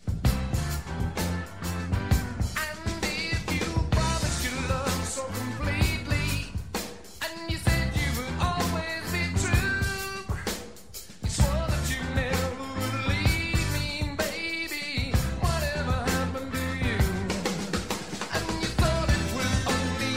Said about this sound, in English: one of the prime examples always mentioned uh, when, when it comes to the halftime shuffle.